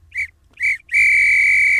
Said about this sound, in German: Oh, was denn jetzt kaputt? Grünäuglein hat gepfiffen.